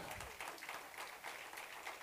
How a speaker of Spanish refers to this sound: Denle un aplauso a Cristo, por favor.